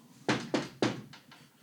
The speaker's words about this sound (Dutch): Ik weet het nog, ik weet het nog als de dag van vandaag. En toen klopte ik aan.